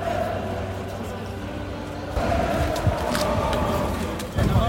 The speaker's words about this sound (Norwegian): Den sangen er, den treffer på hjertet vårt eh, hver gang de Ultra synger den. Det er fantastisk stemning der.